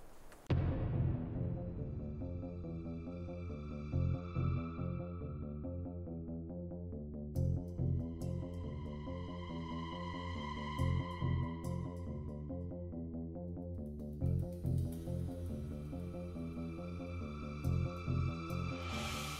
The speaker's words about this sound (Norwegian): Ja, vi får nesten si at vi får ta bare en rask liten pausetone. Ja. Så er vi straks tilbake igjen.